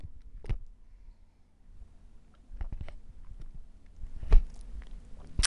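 Someone takes a quiet sip of a drink, with soft wet mouth clicks and a swallow over a few seconds, with no talking.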